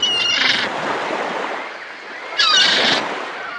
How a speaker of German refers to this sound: Eine Möwe kreischt laut über deinem Kopf.